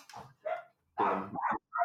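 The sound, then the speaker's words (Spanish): Dogs barking in a quick, uneven run of four sharp barks, some short and yappy, others longer and more drawn out, with no talking. “Yo pongo un minuto de silencio porque mis perros son un quilombo bárbaro.”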